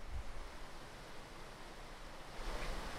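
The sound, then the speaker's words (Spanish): A river flows steadily, heard from its bank: a continuous soft rushing wash of water with no pauses, heard on its own without any voices and swelling a little toward the end. “Estamos a la ribera del río. A ver si, se escucha un poquito el río hermoso.”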